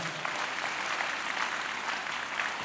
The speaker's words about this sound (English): Can I get clap in the house right now?